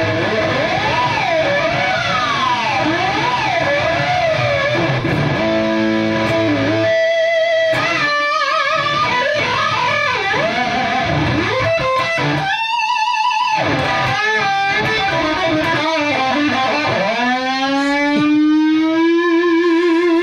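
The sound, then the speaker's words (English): A heavily distorted Les Paul electric guitar fitted with a Floyd Rose tremolo plays loud, wild lines full of whammy-bar dives and swooping pitch bends, with short pauses between bursts and a long rising squeal near the end. “And this is a Les Paul with a Floyd.”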